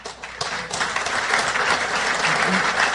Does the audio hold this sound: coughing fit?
no